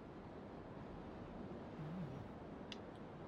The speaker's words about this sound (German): Aber ähm, es ist, und hier habt ihr auch keine Karten mehr, aber es ist der Fluss schon um einiges schmäler und ihr hört irgendwo in der Entfernung etwas, was potenziell ein bisschen nach Wasserfall klingt.